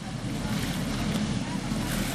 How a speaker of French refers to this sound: Euh, il y a les bateaux qui passent. ouais, attends qui passent un petit peu là. Ouais.